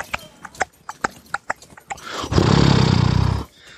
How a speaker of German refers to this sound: Äh, man hört auf einmal den, den Hufschlag von zwei Pferden voll quasi in der, in der Einfahrt zu dem Hof.